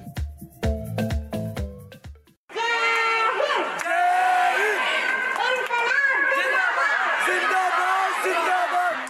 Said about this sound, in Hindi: इन आवाजों की नारों की गूंज पिछले करीब सौ दिन से दिल्ली में सुनाई दे रही थी इस गूंज का मकसद हंगामा खड़ा करना नहीं बल्कि सूरत बदलना था